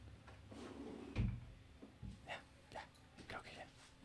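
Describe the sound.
A door shuts with a single dull, low thud about a second in. Muffled talking and shuffling noises continue around it.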